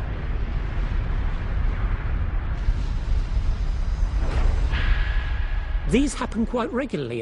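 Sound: explosion sound effect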